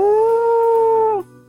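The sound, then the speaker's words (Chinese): A person's voice imitates a low, eerie wolf howl coming from inside a shed: one sustained, steady, moaning note held for over a second, then dropping off abruptly at the end. It is loud and heard alone. “这时，窝棚里传来了一阵低沉阴森的嚎叫声。”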